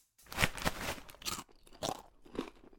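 Crisp, loud crunching of someone biting and chewing shrimp crackers, a quick series of about five or six crackly bites in an uneven rhythm, with no talking.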